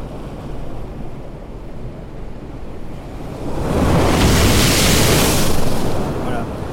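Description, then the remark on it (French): A processed ocean wave: a steady low rumble of surf that swells abruptly around the middle into a loud, hissy crash with bright, foamy high-end filtering sweeping through before easing slightly. “c'est à peu près le même son au départ, sauf que, euh, un, je lui donne du mouvement, donc la vague est beaucoup plus brusque, et d'autre part, il y a un filtrage à la fin qui donne un effet de, d'écume en fait, en boostant les aigus sur la fin.”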